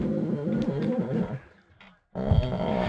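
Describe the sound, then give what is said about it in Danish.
A deep, resonant 'hong' vocal tone sung into a person's back for sound healing, a rough sustained hum that wavers, fades into a short silence, then starts again strongly for a second low note. “Jeg vil lige fortælle, at øh, det jeg gjorde nu, det var, at jeg brugte en honglyd.”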